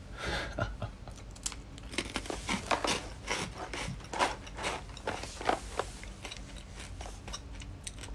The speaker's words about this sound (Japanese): だからポテロング食いつつジン飲みつつ